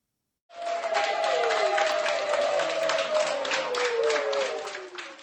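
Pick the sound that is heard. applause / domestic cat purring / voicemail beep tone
applause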